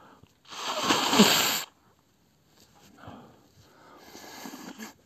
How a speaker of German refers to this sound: Moment mal eben die Nase putzen.